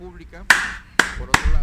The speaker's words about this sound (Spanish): aplausos, aplausos para los estrategas políticos.